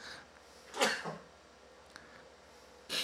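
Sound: sneeze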